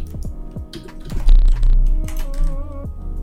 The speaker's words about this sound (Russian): Ты только что микрофон, микрофоном дубцанул, дядь. Я-то клавиатурой дубцанул.